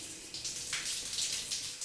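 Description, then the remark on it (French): Steady rushing water of a shower running, with a continuous hissing spray and slight surges in intensity throughout. “Douche ou pas”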